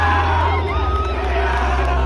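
A dense crowd of voices, several people around a woman, yelling and cheering excitedly, loud, with overlapping shouts and a steady low rumble underneath for the whole stretch.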